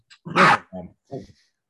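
A dog barks three times in quick succession while someone wrestles with it, the first bark loud and drawn out, followed by two shorter, softer yaps, with no other sounds.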